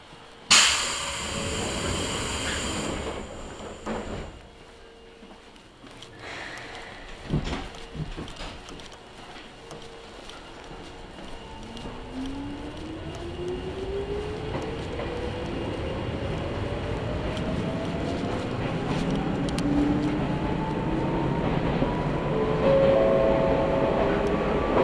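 An Izuhakone Railway Daiyuzan Line commuter train in Japan gets under way and runs along the line, its steady rumble and wheel clatter joined by a motor whine that climbs gradually in pitch as it accelerates.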